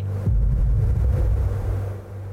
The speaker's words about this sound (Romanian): Se aude explozia.